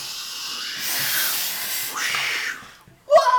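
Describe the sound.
A voice imitates a stormy wind with loud, breathy hissing whooshes that swell and sweep in pitch over two long gusts, dropping briefly quiet before a short, harsher burst at the end.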